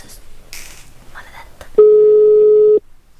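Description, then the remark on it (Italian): A telephone ringing tone sounds once as a steady, mid-pitched electronic tone lasting about a second, following some faint background noise, with no answer. “Rispondi, maledetto. Si è forse non risponde.”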